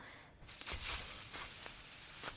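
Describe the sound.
A person draws a long, steady hiss of breath in through the teeth, the tip of the tongue placed at the top of the teeth, as a calming breathing exercise; a continuous snake-like sound lasting about two seconds with no talking.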